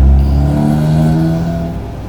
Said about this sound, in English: Loud vehicle.